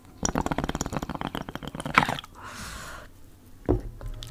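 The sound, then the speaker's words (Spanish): A water pipe being smoked bubbles in a quick, steady run of gurgling pops for about two seconds, followed by a soft breathy hiss and a single dull knock. No one speaks. “hoy eh, estoy fumando, por si acá. Para que vean que esto es verdad, tengo mi pipeta de agua.”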